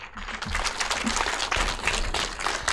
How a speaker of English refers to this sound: Please, a huge round of applause for Mr. James Hoffmann.